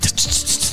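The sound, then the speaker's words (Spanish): A voice imitates a barber's scissors snipping in the air without cutting anything: about four quick, breathy, high hissing snips in a steady rhythm, fairly loud, with no talking over them. “Pero le mueve las tijeras de más.”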